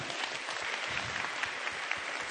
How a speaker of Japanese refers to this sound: ハードな振りを生徒さん連続で2回もやったのすごい、ね、素晴らしい大きな拍手を